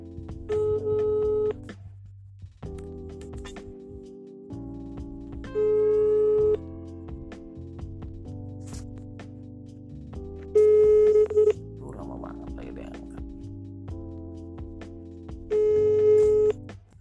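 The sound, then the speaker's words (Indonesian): An outgoing phone call's ringback tone repeats in short bursts about every five seconds, sounding over a steady, humming tonal background with no one talking. “oke deh kita telepon dia SMS nya sudah masuk Ui, ui, ui, ui, ui, ui.”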